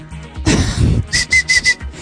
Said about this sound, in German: Guck mal, ich hab die Hände hoch, da kann ich überhaupt nicht mit den Pfeifen.